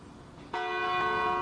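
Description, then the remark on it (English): A large bell at a local church, rung by participants in a monthly interfaith event called the 11th Hour Calling, strikes once: a sudden ringing tone rich with layered overtones that swells and sustains, loud, with no voices present. “Participants ring the large bell at a local church.”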